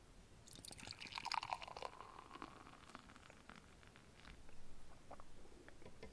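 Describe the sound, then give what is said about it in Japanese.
Reddish beer is poured into a glass with a gurgling, splashing rush that gives way to a soft, steady fizz of foam crackling and settling, leaving a lot of foam. The pour is fairly quiet, with no voices. “じゃあちょっとビアクズグラス注いでいきたいと思います”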